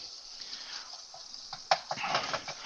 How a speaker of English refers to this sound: Well, oh, let's check our sausage real quick, y'all. Take the lid off. Woo! Can you hear it sizzling? I hear, I hear. Mm-hmm. That is progress happening, man.